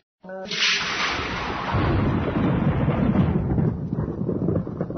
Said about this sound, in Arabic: ما يقوله إذا سمع الرعد سبحان الذي يسبح الرعد بحمده والملائكة من خيفته مشفقون